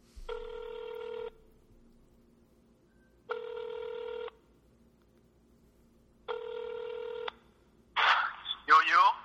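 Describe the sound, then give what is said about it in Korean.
A phone ringback tone sounds three times in steady, evenly spaced bursts, each about a second long, followed by a voice answering the call at the end. “전화해볼까요? 아, 전화할까요?”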